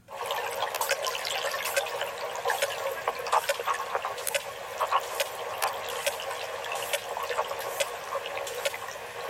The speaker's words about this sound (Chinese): 对， 那我们来听听抹香鲸。抹香鲸就是那个最大型的齿鲸了。 对，就是《白鲸记》里面的主角。 是，来听听抹香鲸的声音。